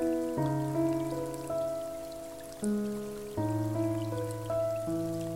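Soft, steady rainfall hisses gently in the background beneath slow, sustained piano chords that change every second or two, with no voices present.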